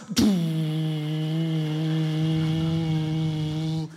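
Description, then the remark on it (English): A voice imitates a train toilet door sliding open: a sharp click, then one long, steady, buzzing hum held for several seconds at even loudness before stopping abruptly. “I went to the toilet, right? I pressed open, somebody else had only pressed close. the door goes.”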